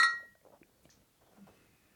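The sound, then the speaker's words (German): Glasses clink together once in a toast, a bright ringing tone that fades quickly, followed by faint handling and rustling sounds. “Stelle ein, der Prost geht an Sie. Ne? Also zum Wohlsein.”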